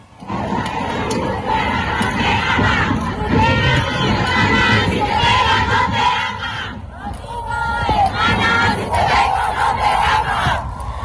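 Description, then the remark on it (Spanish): A women's protest march crowd of about 12,000 in the capital's historic center on International Women's Day shouts and chants together, many high voices blending into a loud, continuous roar that surges and swells throughout, sustained with no pauses. “Y ahora le pasó la marcha de las mujeres encima. Escuchemos.”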